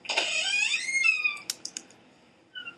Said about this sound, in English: Spooky door just got opened. Yeah. Dogs nosing their way into rooms.